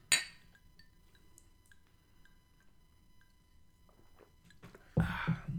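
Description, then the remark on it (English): Glasses clink together in a toast, a bright ringing chime at the start followed by a few faint taps, then a louder rustling burst near the end with no talking. “Uh, here's to those we love who are no longer with us.”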